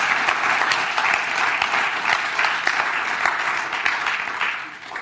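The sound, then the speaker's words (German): Sustained applause from a church audience for the church's welcome team, a dense, steady wash of many hands clapping at an even, loud level for several seconds, easing slightly at the very end. No one speaks over it. “Vielleicht können wir ihnen mal einen großen Applaus geben, weil sie machen einen gewaltigen, genialen Job.”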